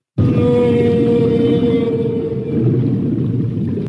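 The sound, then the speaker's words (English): A mother blue whale, with her calf tucked next to her body under a fin, breathing: one long, loud exhale, a deep rumbling whoosh with a droning, almost moaning tone that holds steady for nearly four seconds with no talking. “This is the sound of the blue whale breathing”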